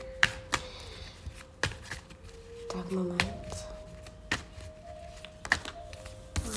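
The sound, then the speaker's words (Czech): Tarot cards being shuffled: a series of crisp, irregular snaps and soft taps as the cards slap together, with a person speaking briefly over the handling. “A každopádně, já už se dívám na vaši fotku, míchám u toho karty a my se spolu podíváme, co nám Tarot řekne o vašem partnerském životě”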